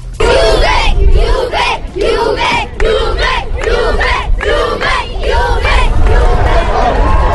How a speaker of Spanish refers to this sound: no se esperaban que tantos niños estuvieran esperando el equipo con camisetas y gritando Juve, Juve, Juve.